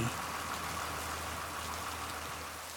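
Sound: heavy rain falling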